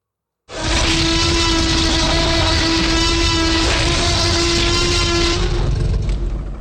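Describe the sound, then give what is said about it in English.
A pelican gives a loud, harsh, rasping call that drones on steadily for about six seconds, with no voices and no pauses. “I don't know if you've ever heard what a pelican sounds like, but it is truly terrifying.”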